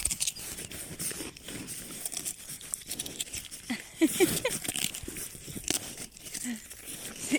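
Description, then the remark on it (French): Steady crunching and gnawing as rams chew on feed, a dense run of irregular crisp bites and rustles, with a brief human laugh partway through. “Voilà, je leur ai donné et ils sont en train de rogner.”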